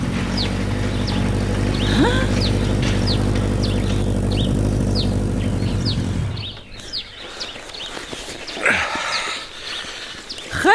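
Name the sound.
motorcycle arriving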